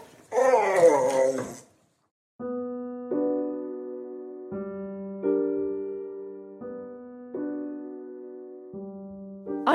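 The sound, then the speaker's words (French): A dog gives a short, loud yelp, then after a brief pause lets out a string of long, steady whimpering whines that step up and down in pitch. “J'emmène Snoopy. Elle nous protégera en cas de danger.”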